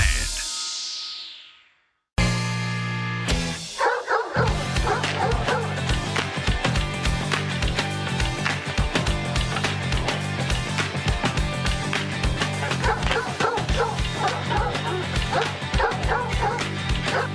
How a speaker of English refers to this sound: Sounds like Lou Dog. My, uh, my dog, sorry.